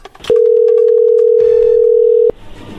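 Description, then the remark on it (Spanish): A phone call's ringing tone: one loud, steady, mid-pitched electronic tone holding for about two seconds, then cutting off abruptly, with faint background noise and no voices. “A ver, ya entró ahí la llamada, no haga ruido.”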